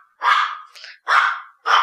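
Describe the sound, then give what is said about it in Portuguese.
A female dog barks in a quick series, three loud, harsh barks with a softer one in between, with no talking over them. “Tem uma cachorra latindo.”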